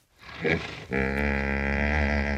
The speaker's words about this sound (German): So klingen nämlich Nilpferde.